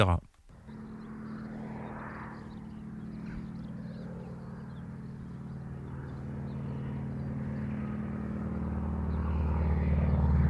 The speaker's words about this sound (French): c'est à peu près pareil, sauf que vous avez plusieurs bruits. Déjà la nature, bruit de voiture, et ensuite un avion qui passe au-dessus de vous et qui tourne.